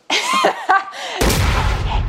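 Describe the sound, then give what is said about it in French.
Gliding, voice-like whooshing tones with a sharp click lead into a sudden loud explosion sound effect, a broad noisy blast with deep rumbling that roars on until the end. “Waouh Bruitage d'explosion là.”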